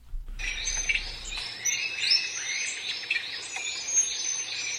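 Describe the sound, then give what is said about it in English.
A dusky tetraka, a small, elusive songbird of Madagascar, sings a continuous run of thin, high-pitched twittering phrases, repeating steadily at moderate volume with no voices, over a faint background hum. “And up next, a small and exceptionally elusive songbird is today's featured feathered friend.”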